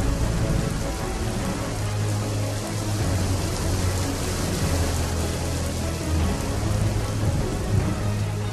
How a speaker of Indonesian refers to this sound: Hujan akan segera turun. Lalu Tuhan menurunkan hujan selama 40 hari 40 malam hingga air menutupi seluruh bumi.